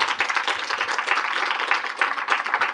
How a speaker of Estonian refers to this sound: aitäh, aitäh kõigile kuulajatele, teeme väikese aplausi ka arutajatele